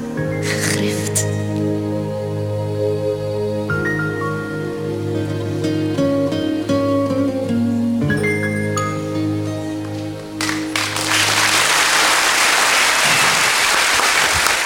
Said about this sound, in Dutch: Groot applaus